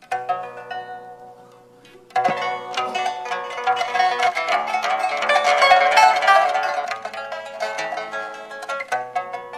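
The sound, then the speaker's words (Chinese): A pipa plays in classical guitar style: a soft, sparse plucked melody, then a fuller, louder passage of rapid ringing notes and chords after a couple of seconds, with no voices. “好了，到了欧美的古典吉他，你看。”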